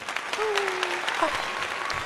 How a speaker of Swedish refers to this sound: Så en stor applåd till Karina Nordin!